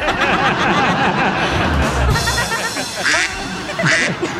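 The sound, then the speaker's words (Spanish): Loud, rapid duck quacking fills the whole stretch, a dense overlapping chorus of nasal quacks, with a few sharper calls bursting out near the end. “Y el pato dice, cuá, cuá.”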